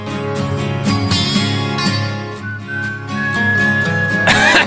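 A rock song plays at full volume, with a clear whistled melody gliding over strummed guitars and a steady rhythm; no one speaks.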